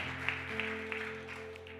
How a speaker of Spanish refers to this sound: tiene un aplauso fuerte.